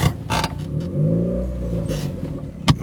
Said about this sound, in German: Wie man hört, bin ich auch immer noch nicht dazu gekommen, meinen Auspuff zu reparieren zu lassen. Das Ersatzteil liegt immer noch bei mir in der, bei mir im Kofferraum rum.